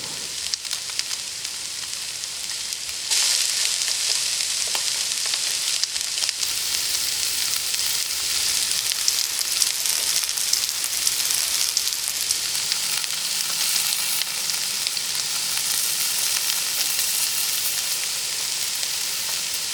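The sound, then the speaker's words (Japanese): Saury fish sizzling as it salt-grills, a steady, dense crackle and hiss that grows louder after the first few seconds and holds without a break, with no voices. “今朝は秋の味覚サンマの塩焼きのいい音”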